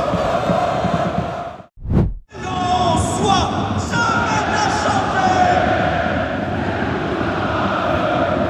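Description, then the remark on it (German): A dense, loud crowd roar fills a large football stadium seven minutes before kickoff, during the warm-up, with a steady wash of cheering and chanting, briefly cut around two seconds before the roar swells back in. “Die Stimmung ist wirklich sehr, sehr gut, muss man echt zugeben. Also alles sehr, sehr laut, jetzt schon beim Aufwärmen.”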